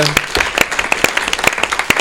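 A crowd applauds with steady, dense clapping, individual sharp claps standing out in an irregular patter over a continuous bright wash of hands.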